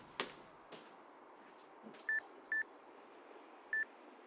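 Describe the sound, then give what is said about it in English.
Three short, clear electronic phone beeps, two close together and then one after a pause, follow a few soft taps, like keys being pressed to dial a call. No one speaks. “You actually answered your phone.”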